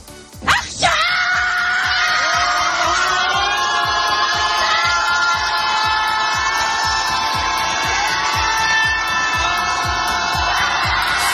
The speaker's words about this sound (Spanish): Son los gritos desesperados al unísono de centenares de familiares de los cerca de 130 israelíes secuestrados por Hamas. Esos gritos son contra el propio presidente de Israel, Benjamín Netanyahu.